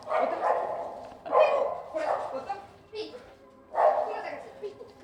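A dog named Piibu barks in a series of loud bursts, about five yaps spread unevenly over a few seconds, some sounding slightly whiny between the sharper barks.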